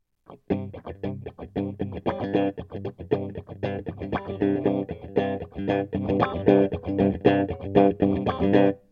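A funk electric guitar riff played without a wah pedal, alone, with busy, choppy rhythmic strumming that repeats steadily for several seconds at a fairly loud level.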